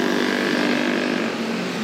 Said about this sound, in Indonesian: Uh, sorry gue lagi di atas motor.